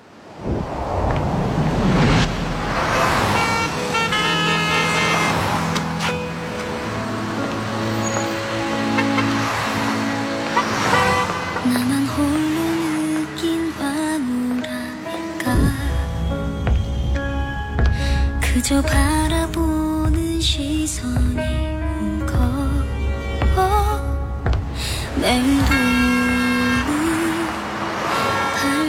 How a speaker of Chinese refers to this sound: 然后呢，女主当时正处在一个伤心欲绝的状态，于是她就不顾车流的往来，然后自己径直穿过马路，把那个钱包捡起来，然后还给了男主。